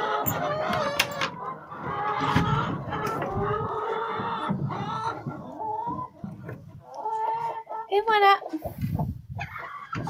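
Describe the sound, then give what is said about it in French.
Several chickens cluck and squawk in a busy, overlapping stream of calls that continues for the whole stretch, with some calls rising into higher, drawn-out cries. “Il faudrait que je nettoie le poulailler aujourd'hui ou demain.”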